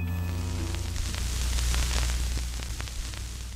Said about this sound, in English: Most SCIFs don't have windows. Some emit a kind of white noise to prevent eavesdropping.